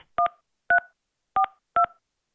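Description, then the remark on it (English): Four short telephone keypad tones punched in at an uneven pace as a zip code is entered into an automated phone line, each a crisp two-pitch beep, with silence between presses and no voices. “You entered 91342. If this is correct, press 1.”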